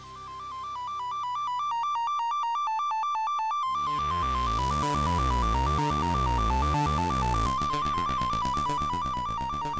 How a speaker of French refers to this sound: Tout part d'une onde sinusoïdale